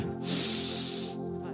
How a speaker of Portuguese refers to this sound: Não, tem pouca gente respirando, vocês não acreditaram. Faz assim para mim, ó. Você está respirando então você está vivo.